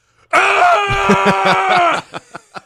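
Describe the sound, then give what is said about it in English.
A person imitates a hound dog's howl with one long, loud, steady vocal wail lasting over a second, followed by a few short breathy bursts like quick chuckles. “I think that the what people think hound dogs sound like is different than they actually are.”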